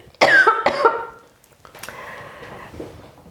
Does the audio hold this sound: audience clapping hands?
no